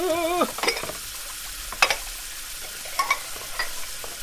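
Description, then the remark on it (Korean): Dishes being washed at a kitchen sink piled with dirty dishes: a brief squeaky tone opens, then scattered clinks and clatters of crockery over a steady wash of water-like noise. “집안의 여자들이 빠져나가고 나는 싱크대에 수복해 쌓여 있는 설거지를 했다.”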